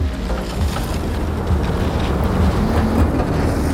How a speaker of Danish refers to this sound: Der blæser en strid vind, og sneen falder hæftigt.